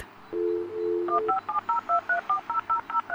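A dial-up modem on an old desktop computer dials out to connect to the Internet: a brief steady dial tone, then a quick, evenly paced string of about ten touch-tone beeps, clear, with no voices.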